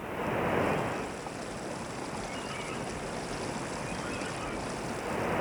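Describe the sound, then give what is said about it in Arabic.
Steady roar of sea surf with waves washing in, swelling louder at the start and again near the end, broad and continuous with no voices, as Asad ibn al-Furat sets out by sea after months of travel from Kairouan, bound for the Hijaz. “ها هو يركب البحر بعد أشهر من المسير من القيروان ليصل إلى أرض الحجاز”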